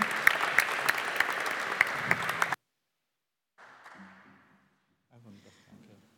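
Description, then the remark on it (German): A burst of audience applause for climate ambassadors and climate communicators, dense and steady clapping for about two and a half seconds, then cutting off abruptly; after a pause, faint voices speak briefly. “Ein Applaus für unsere Klimabotschafter und Klimakommunikatoren.”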